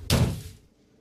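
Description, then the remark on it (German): A single heavy thud as a dead pigeon drops onto the ground, a sudden dull impact that fades quickly into quiet with no voices. “Kurz darauf schlägt eine tote Taube vor ihm auf dem Boden auf.”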